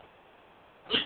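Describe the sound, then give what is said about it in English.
A single quick, sharp sneeze bursts out near the end after a stretch of quiet background hiss, with no talking around it. “God, bless you.”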